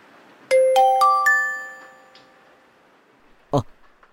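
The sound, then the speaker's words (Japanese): A mobile phone in a room on a rainy Saturday morning chimes with an email notification: four quick, bright notes rising in pitch and ringing out, followed a couple of seconds later by a short soft thump. “メールだ。”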